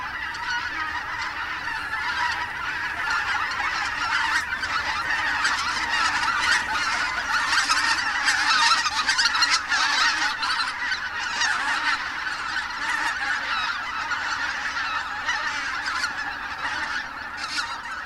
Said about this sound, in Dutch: Ja, wij dachten, wij gaan nooit een gansgeluid kunnen laten horen, want wij laten die beesten gerust. We gaan ze niet opjagen, omwille van zo'n, van zo'n Maar eh, ze vliegen zelf op, dus...